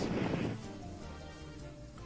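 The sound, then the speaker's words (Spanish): A heavy, muffled blast bursts out at the start and fades into a low rumbling tail, then a sudden sharp crack snaps at the very end: gunshots and explosions from an animated fight scene. “Y ahí se empieza a pelear mientras, mientras tiene no es nada, solo es un par de pistolazos, explosiones.”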